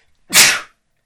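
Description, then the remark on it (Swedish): A single sharp, explosive sneeze bursts out, loud and breathy, lasting under half a second before cutting to silence. “Prosit. Ursäkta mig.”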